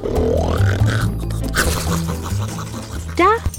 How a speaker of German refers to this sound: Doch gleich darauf hörte man ihn wieder tief schnarchen